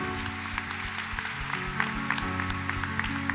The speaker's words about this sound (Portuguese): Levanta a sua mão. Pode aplaudi-lo. Deve aplaudir.